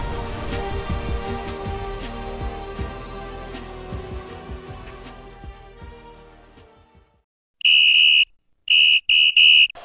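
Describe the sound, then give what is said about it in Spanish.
Music fades out, then a loud, shrill referee's whistle sounds alone for the kickoff of a football match: one long blast followed by three short, sharp bursts in quick succession. “Se ha escuchado el silbatazo inicial.”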